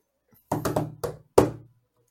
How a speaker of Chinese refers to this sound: OK，是一个敲击声。